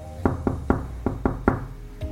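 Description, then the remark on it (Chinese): Knocking on a door: six firm, hollow knocks in two quick groups of three, then one softer knock after a short pause, with no voices. “叩叩叩請開門”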